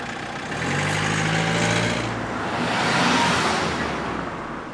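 Steady road traffic rumbles by, with a low idling engine hum from a truck early on, then a vehicle swelling past over the continuous wash of cars. No voices.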